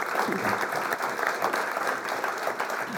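Steady applause from an audience fills the whole moment, a dense wash of many hands clapping at once, fairly close and loud, with no talking over it.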